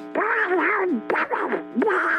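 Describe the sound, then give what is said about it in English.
A loud voice does a raspy Donald Duck impression, sputtering out three quick bursts of nasal, quacking gibberish with wobbling pitch. “You better learn to do Donald Duck real quick, civilian.”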